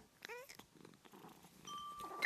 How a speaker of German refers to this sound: Äh. Was ist denn das? Sind Katzen im Laden. Oh, Katzen. Sehr schön.